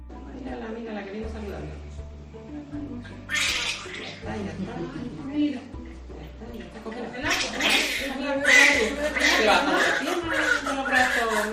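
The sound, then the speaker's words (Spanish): A newborn baby a few days old cries in strained, wavering wails that come in repeated bursts, growing louder and more insistent toward the end. “Hace falta que nazcan bebés como este que acabas de escuchar”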